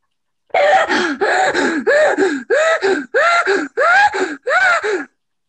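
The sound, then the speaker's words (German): Loud, deliberate breathing: seven heavy, voiced breaths in a steady rhythm, each a forceful gasp-like inhale and exhale with brief pauses between, no talking. “Atmen. Atmen.”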